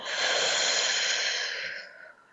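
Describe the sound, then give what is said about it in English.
A long, steady exhale through the mouth after a breath in through the nose, a soft airy rush lasting about two seconds that fades out at the end. Fairly quiet, with no talking. “So let's take a breath in through the nose, out through the mouth.”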